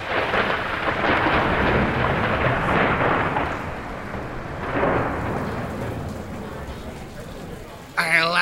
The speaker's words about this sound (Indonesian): ini hujan kagak bersahabat gini lagi.